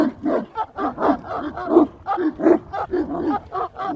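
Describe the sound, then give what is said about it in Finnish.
A small pack of dogs, set off by the yapping of three, barks and snarls madly in rapid, overlapping bursts, loud, with rough growling running between the barks and no pause for the full stretch. “Pimeydestä sinkoilee kiviä koiria kohti”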